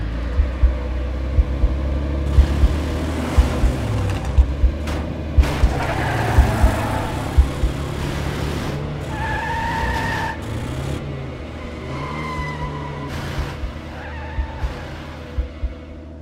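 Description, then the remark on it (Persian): A car engine revs and roars while tires screech in drawn-out squeals, the engine rumble rising and falling over about sixteen seconds with no talking; the car speeds off as soon as passengers get in, before the doors are shut. “ماشین رو زد تو دنده همین که در ماشین رو باز کردیم و نشستیم قبل از اینکه در رو ببندیم گازش رو گرفت و راه افتاد”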